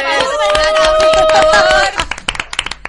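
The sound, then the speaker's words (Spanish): A short burst of applause, many hands clapping quickly while voices cheer and whoop over it, then it thins out into a few scattered, uneven claps. “Mira, mira, yo creo que un aplauso por el bar de la uni.”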